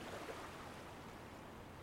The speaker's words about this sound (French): Pendant que tu marches, tu entends le doux bruit des vagues et tu sens les embruns de l'océan, une odeur rafraîchissante, très agréable, que tu ne peux trouver qu'en bord de mer.